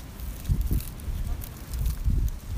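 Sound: wind blowing outdoors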